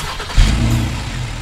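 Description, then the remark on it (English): A Honda Pilot SUV engine turns over and catches, then surges into a loud, low, sustained rev that holds steady, with no voices present. “That? Oh, that's the spacious Honda Pilot.”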